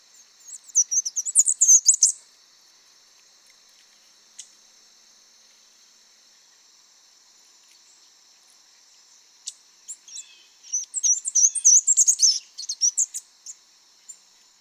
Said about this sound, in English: Um, I couldn't find the zeep call of the Bachman's warbler, but here's the zeep of a black and white warbler.